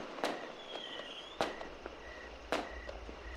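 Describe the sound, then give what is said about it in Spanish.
Fireworks and gunshots fired into the air crack in celebration of the New Year at midnight at a shop at rancho Corrales: three sharp, echoing bangs roughly a second apart, with fainter pops and crackles between them, with no one talking. “Justo a las 12 de la noche, comenzaron a lanzar cohetes y balazos al aire como parte del festejo.”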